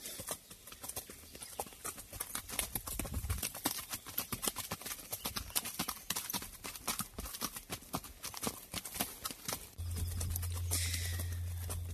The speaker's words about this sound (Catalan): Som aquí a l'Empordanet passejant a cavall, desconnectant, em deies, dels problemes, eh?